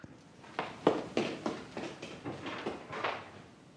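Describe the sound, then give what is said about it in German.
A run of about ten quick, evenly spaced footsteps thuds at moderate volume as someone walks to answer a knock at the door, with no one speaking. “Kann ich durch Türen sehen? Mach halt auf.”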